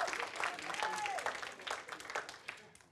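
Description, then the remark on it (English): An audience claps during a sermon, a dense patter of many hands that stays fairly steady for a few seconds before thinning out, with a brief whoop or voice rising above the applause. “Somebody needs to clap better than that.”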